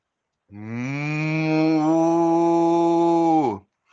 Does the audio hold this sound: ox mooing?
yes